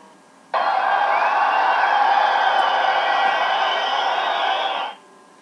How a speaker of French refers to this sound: Et ça, bien sûr, c'est l'ambiance d'un stade.